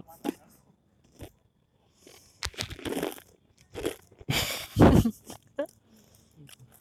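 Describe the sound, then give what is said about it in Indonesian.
Crunchy chewing of a snack, with irregular loud bursts of crackling bites and munching separated by brief quiet pauses. “Makan dulu kali slow ya.”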